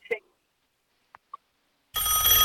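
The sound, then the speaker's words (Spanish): A telephone rings for an incoming call, starting loud and sustained near the end after a couple of faint, brief chirps in an otherwise quiet stretch. “Otra ah, llamada. Otra llamada, qué bueno.”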